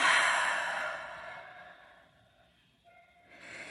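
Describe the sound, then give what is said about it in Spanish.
A long, airy exhale through the mouth after a deep breath in through the nose, loud at first, then fading into quiet before a softer breath rises again near the end. No one speaks. “Vamos a tomar una respiración profunda inhalando por la nariz y exhalando por la boca.”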